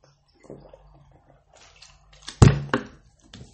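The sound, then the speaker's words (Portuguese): Water sounds: a brief trickle and splashing, then a louder pour of cold water with gulping swallows around the middle, followed by quieter handling noises. “Ai, que água geladinha.”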